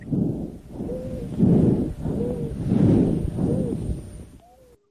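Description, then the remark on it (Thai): Wheezing lung sounds heard through a stethoscope: muffled, rhythmic breaths repeat about four times, each carrying a thin, high musical whistle over the low rushing air, with no voices. “อันนี้เสียงวีดเหมือนกันนะได้ยินมาเนี่ย”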